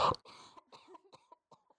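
coughing

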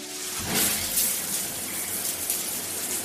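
shower water running

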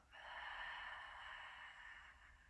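deep inhale through nose

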